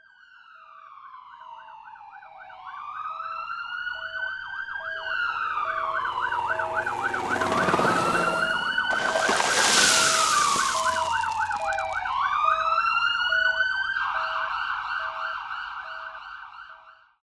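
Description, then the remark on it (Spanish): Several emergency sirens of ambulances, police and fire trucks wail and yelp at once, overlapping loudly as the vehicles pass with engine rumble beneath, the rising and falling tones swelling in the middle before fading slightly. “Los sonidos de tambores, liras y todas las bandas fueron sustituidas por las sirenas de ambulancias, policías y bomberos.”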